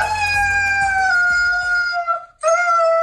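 A husky puppy howls in two long, wavering cries, the first sustained and slowly falling, then a brief break before a second howl starts up, loud and close.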